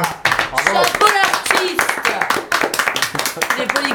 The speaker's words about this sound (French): Moi, j'ai envie de t'applaudir. Moi, j'ai envie.